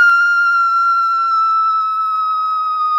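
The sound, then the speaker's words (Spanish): A single shrill, excited scream, a reaction to a message inviting the screamer to voice-dub a Sony Pictures film, held at one piercing high pitch for about three seconds, loud and steady, sagging slightly in pitch before cutting off abruptly, with nothing else audible. “perdón si este grito los dejó sordos. Pero esa fue mi reacción genuina.”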